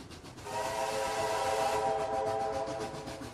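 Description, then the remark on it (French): The whistle of a last-century steam locomotive blows one sustained, loud, chord-like blast of about a second and a half over the rumbling, chuffing noise of the steam train, which continues after the whistle stops. “Un voyage d'antan où vous vivrez les joies simples de ce train avec ses banquettes en bois, sa locomotive du siècle dernier crachant sa fumée et son bruit inoubliable.”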